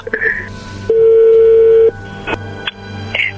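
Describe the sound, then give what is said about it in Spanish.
A phone number being dialed again: a loud, steady mid-pitched tone holds for about a second, framed by a few short, higher electronic beeps over a low background hum. “A ver, márcala de nuevo.”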